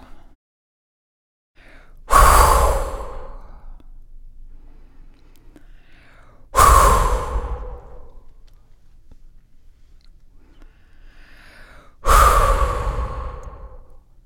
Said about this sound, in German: Jetzt habe ich eine Atemübung für dich. Atme fünf bis sieben Mal ein und kraft- und geräuschvoll aus. Also ich mache es dir mal kurz vor.